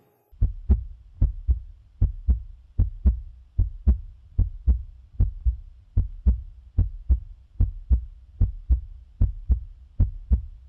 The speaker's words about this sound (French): on aura reconnu, euh, en fait, il s'agit du battement du cœur. Alors, euh, ok, pourquoi pas, mais alors comment elle vient comment vient l'idée En fait, comment on part du cœur, l'organe, à, euh, euh, à, une poubelle en plastique